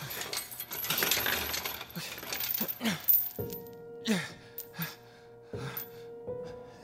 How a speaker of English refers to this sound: takes the keys from Dennis's pocket and unlocks the chains on Ava